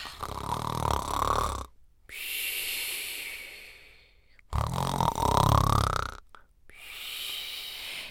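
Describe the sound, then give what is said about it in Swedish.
Loud, rasping snores repeat in a slow rhythm, each rough inhale followed by a breathy, hissing exhale, with no talking. “Han lägger sig i sängen och börjar snarka.”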